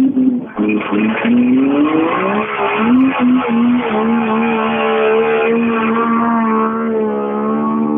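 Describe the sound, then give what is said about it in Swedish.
A rally car engine revs hard and loud, its pitch climbing through the gears as it roars past, with a brief tire squeal near the start. “Oj, nu går det för salen. Vi måste nästan lyssna här.”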